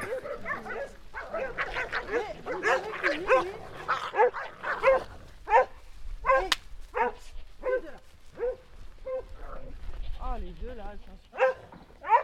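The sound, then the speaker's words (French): Border collies bark, yip and whine in quick, irregular bursts, fairly loud, with several calls overlapping as they escort a line of goats out to the meadows at Séné, on a peninsula in the Gulf of Morbihan. “-le escorté par les border collets.”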